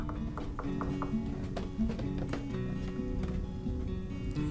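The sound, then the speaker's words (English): Repeated knocking on an apartment door in the early evening, a series of sharp raps in an uneven rhythm, over a steady low background hum. “She didn't want to get out of bed, but the knocking persisted as she pulled back her blankets and struggled her way to the door.”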